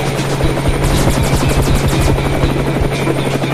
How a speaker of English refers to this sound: I don't know if I can get us away from that helicopter.